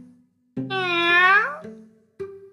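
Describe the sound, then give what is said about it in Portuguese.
A single drawn-out cat meow, fairly loud, lasting about a second and sliding up and then down in pitch, followed by a couple of brief, softer vocal sounds. “Ouvi um miado.”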